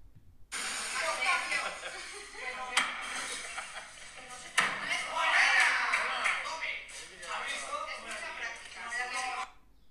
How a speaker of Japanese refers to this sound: ちょっとだけその斧投げアクティビティの雰囲気を紹介したいと思います今からあの撮った動画の音声を流したいと思うので途中で聞こえてくるこうドンドンっていう音がちょうど斧が的にこうぶつかっている音ですね